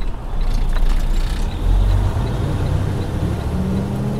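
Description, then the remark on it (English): A steady, heavy low rumble of a self-driving Freightliner Cascadia semi-truck's engine and road noise fills the cabin as it drives along Florida's Highway 27 through the Everglades, a deep drone shifting slightly in pitch; no one speaks. “I was sitting in the back of a cabin, on a bed actually, in a Freightliner Cascadia.”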